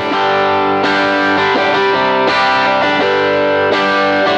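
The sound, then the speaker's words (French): A guitarist plays a clean-recorded electric guitar sent through iRig hardware into an iPad, changing its effects settings: heavily distorted, loud, sustained chords, a new strum ringing out roughly every second and a half with a thick, buzzing, effects-laden tone and no talking. “Donc il a enregistré euh, son son clair et il le, il le balance d'ailleurs par l'intermédiaire du iRig hardware dans son iPad.”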